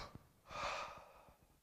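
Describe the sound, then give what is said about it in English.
A single sharp, shuddering gasp for breath, fairly loud, a broad airy intake swelling and fading over about a second, with faint stuttering catches beneath it. A voice performs the gasp to show gasping at the end of being out of breath. “That picture, breath, spirit, wind of life, what that literally is talking about is a gasping at the end of being out of breath.”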